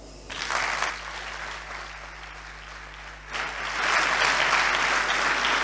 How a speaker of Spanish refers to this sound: Y os pido un fuerte aplauso para él.